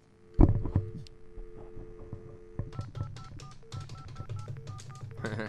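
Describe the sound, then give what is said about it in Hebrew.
A rapid string of telephone keypad tones as a long-distance number is dialed live on air on Radio Har HaTzofim's show Metal Metal to call a random home, many short beeps at shifting pitches in quick succession, following an opening thud and a steady low hum. “שומעים את הטיפ.”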